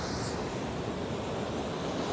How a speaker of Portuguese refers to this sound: Respire fundo e viaje nessa imagem, ouça o mar, as diferentes ondas do mar, os diferentes barulhos.